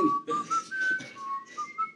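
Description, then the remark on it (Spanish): A few people whistle a short tune softly and hesitantly, the thin melodic notes rising and wavering, with some breathy, uneven tones and no talking. “Entonces, pero nosotros nomás lo chiflamos tímidamente.”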